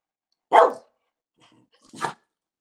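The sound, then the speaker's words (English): A female pet dog gives two short, sharp barks about a second and a half apart, the first louder than the second, with silence between them and no talking. “Bark twice if they're going to win the Super Bowl. That was twice, I think.”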